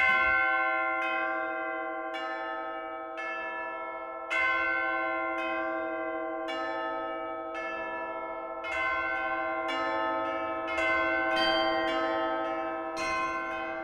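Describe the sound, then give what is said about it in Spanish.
Bells ring out in a steady peal, struck about once a second, each chime's rich tone lingering and overlapping the next, fairly loud with no voices. “en otros países más lejanos, por ejemplo en Japón, lo que hacen es hacer sonar 108 veces sus campanas y es una manera de purificar los 108 deseos mundanos que causan sufrimiento.”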